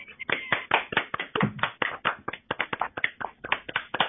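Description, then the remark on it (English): A group of people clapping their hands on cue during a shamanistic ritual, a dense, uneven patter of sharp claps that never settles into a shared beat and keeps going steadily for several seconds. “Now, everybody clap your hands.”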